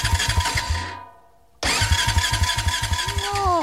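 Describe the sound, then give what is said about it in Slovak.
A car engine cranks in rapid rhythmic chugs, stops briefly, then cranks again without catching. The sound is loud, with a rising whine near the end and no voices. “No pozor, toto nie je zvuk luxusného terénneho auta, to by asi mladá dáma odmietla sadnúť do takéhoto, ktoré štartuje, vlastne neštartuje.”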